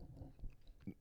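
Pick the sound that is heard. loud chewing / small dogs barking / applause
loud chewing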